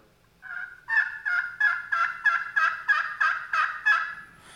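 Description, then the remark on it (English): A friction pot call, worked with a circular motion, plays a basic turkey yelp: a steady run of about ten raspy, evenly spaced notes, fairly loud, with no talking over it. “show us the basic Yelp. Basic Yelp, making a circular circular motion motion, and that cadence.”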